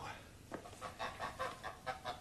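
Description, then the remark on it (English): Geese honk in a quick, uneven series of about seven short calls, fairly faint, over a steady background hiss. “Well, uh, the geese are mine.”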